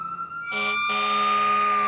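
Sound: fire truck siren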